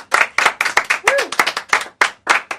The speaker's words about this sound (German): Ja, Wahnsinn. Also tosender Applaus für dich einmal,